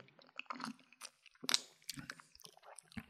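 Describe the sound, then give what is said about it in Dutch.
Quiet sips from a large glass of a drink with lots of ice, with small clinks and crunchy clicks like ice shifting, broken by a louder slurp midway; no one speaks. “Ik ga even proeven. Ja, proef hem vooral. Ik neem zelf ook een slokje.”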